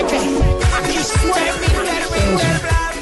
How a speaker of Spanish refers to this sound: pero necesito que me enseñes cómo se baila este ritmo, escucha.